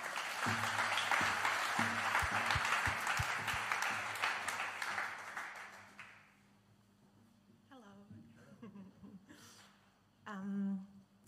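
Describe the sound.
An audience applauds with dense, steady clapping for about six seconds as a speaker is called up onto the stage, before it fades away, and then someone begins speaking.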